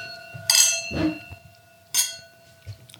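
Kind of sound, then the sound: household object, wine glasses clinking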